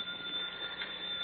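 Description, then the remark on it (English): A telephone rings steadily in a brief, continuous burst with a harsh, buzzy metallic tone and no pauses, heard alone with no talking. “That's a phone.”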